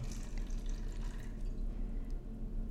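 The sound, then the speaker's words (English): A drink is poured half and half into two glasses, a steady, continuous trickle of liquid over a low background hum, with no voices during the pour. “All right, half to me, half to you.”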